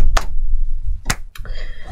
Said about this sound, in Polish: pojedyncze brawo.